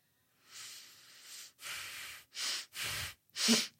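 Snuffly nasal breathing: five breathy, hissing sniffs and exhales in an uneven rhythm, each lasting about half a second to a second, with no voices.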